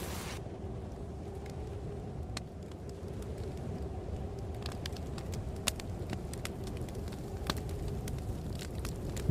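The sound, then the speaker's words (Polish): A fire crackles in a fireplace at Blackwood Pines, with a steady low roar broken by scattered sharp pops and snaps at irregular intervals, moderately loud, with no voices, while snow falls outside and wind blows through the surrounding forests. “W kominku płonie już ogień, za oknem sypie śnieg, a wiatr hula w okolicznych lasach.”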